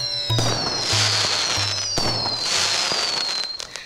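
Loud firecrackers burst and crackle in rapid succession while high whistling streaks glide downward over the din, a dense, nonstop barrage with no voices.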